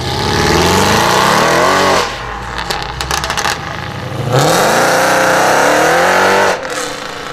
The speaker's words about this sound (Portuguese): E um pouco mais desse motor V8 que tem um nome artístico